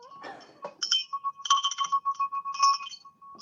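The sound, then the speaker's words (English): A small bell rings rapidly over a few seconds, its bright, high metallic tones repeating in a quick, steady jangle with no talking. “You want to hear me ring the bell?”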